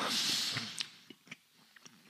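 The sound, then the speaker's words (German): Wet mouth sounds of someone chewing and swallowing food, with a burst of hiss at the start followed by a few soft irregular smacks and clicks, no talking. “Entschuldigung. Schön schlucken, schön schlucken.”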